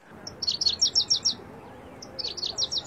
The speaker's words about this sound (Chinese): 我现在所站的这个位置，大家听到没有？有溪水的声音，也有鸟鸣的声音。